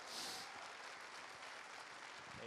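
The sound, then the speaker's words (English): An audience at a church service in Springfield claps steadily in the morning as a pastor comes to the stage, a dense wash of applause that holds even throughout with no voices breaking through. “Would we give him a round of applause this morning?”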